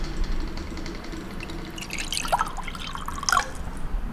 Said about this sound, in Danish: og spørge, om du gider hælde lidt vand op, fordi øh, jeg sidder her med mikrofon i hånden.